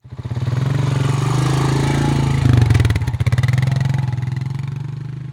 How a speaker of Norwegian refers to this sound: For Nils og Sigurd skal få kjøre firehjuling med Bjørnis helt fram til veien der ambulansen venter.